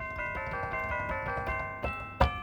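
A bright electronic chime tone, voice number 11 on a toy keyboard, plays a short run of sustained bell-like notes, ending with a sharper, louder strike near the end, with no one talking.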